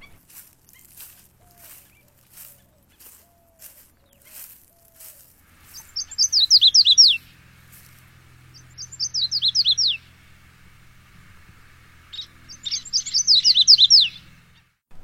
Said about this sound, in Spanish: Otra de las especies que estábamos escuchando era el canario de mangle. Sí, el canario de mangle es una especie nativa. Se encuentra distribuida principalmente en las áreas costeras de Puerto Rico, donde encontramos los pantanos de manglar.